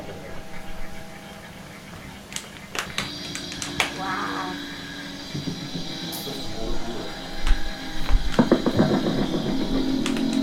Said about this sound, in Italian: Questi, questi si, sono tutti pezzi di sveglia che fanno così. Mio padre li sistemava.